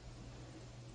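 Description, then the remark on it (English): A dishwasher runs in the background, giving off a faint, steady whir with a low hum underneath. It holds constant throughout, with no voices or other sounds. “Uh, you might hear my dishwasher in the background.”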